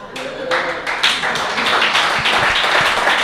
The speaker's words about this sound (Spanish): a, pesar de todo, se merece un aplauso.